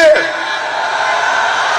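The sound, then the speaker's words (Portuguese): A large crowd at a Bolsonaro rally in Brazil roars with sustained shouting and cheering in reaction to his speech, loud and continuous for a couple of seconds, voices blending into one dense, rowdy wall of noise. “Só ressaltando que Bolsonaro começou nesse tom, mas viu a reação da plateia e mudou o tom.”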